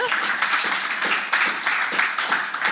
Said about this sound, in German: Das war ein Applaus, den ich fast unterdrückt hätte.